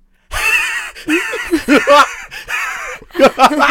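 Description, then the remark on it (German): A person vocally imitates a magpie, sitting in front of their window, that mimics the laugh of the man next door: a string of harsh, chattering, laugh-like bursts, fairly loud, with brief pauses between the phrases. “dass dieser eine blöde Elster immer die Lache imitiert von dem Mann nebenan”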